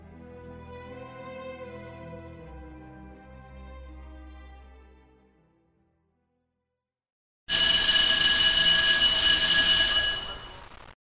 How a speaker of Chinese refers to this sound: 这是一个冬天的晚上，时钟已经走到了九点半。随着铃声的响起，晚自修总算是结束了。